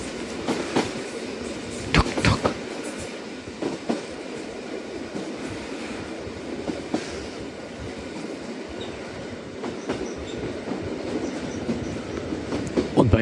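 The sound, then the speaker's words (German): A train rolls steadily along the rails with a continuous low rumble and intermittent clickety-clack bursts from the wheels, heard from on board the train, with no voices. “Im Zug?”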